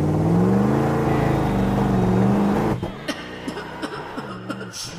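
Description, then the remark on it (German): A loud engine of the giant skunk's stink machine revs steadily as it steps on the gas, with a rising, droning pitch for about three seconds, then cuts off, leaving scattered short clicks and a brief chuckling sound. “Das Riesenskunk in seiner ekelhaften Stinkmaschine tritt aufs Gas und bläst den anderen eine Stinkwolke ins Gesicht.”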